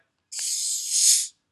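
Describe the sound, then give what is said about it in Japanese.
A single sharp hiss of gas escaping as a 591 ml bottle of Coca-Cola Zero Sugar Cherry flavor soda is twisted open, lasting about a second, fairly loud, with a brief click at the start and no voices. “コカ・コーラゼロシュガーチェリーフレーバーを買ってまいりました。”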